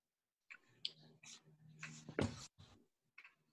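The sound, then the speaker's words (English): A dog whimpers outside in a backyard on a freezing cold day, in a string of short, faint whines, with one sharper yelp in the middle, then falls quiet before a last brief whine. No one speaks. “Today, it's freezing cold my dogs are too dirty to go inside.”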